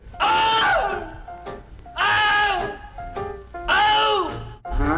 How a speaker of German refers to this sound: Dieser Take wurde bei Warner gespeichert unter Mann, der von einem Krokodil gebissen wird und schreit.